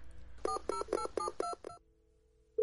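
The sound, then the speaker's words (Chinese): The phone number of Mr. Albert, an etiquette teacher, is dialed: six quick dual-tone keypad beeps in a steady rhythm, followed by a low steady tone as the line connects, then a brief louder tone at the end. “阿尔伯特先生的电话接通了”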